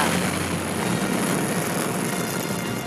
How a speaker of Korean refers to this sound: 역사적인 순간 잠깐 들어보고 갈까요? 네. 5, 4, 3, 2, 엔진 점화, 26, 누리호가 발사되었습니다.